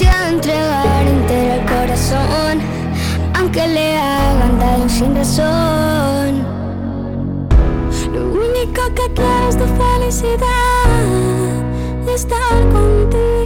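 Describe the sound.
A pop song sung by a singer together with his children, the children's voices singing the melody over steady band accompaniment, loud, the vocals continuous from start to finish.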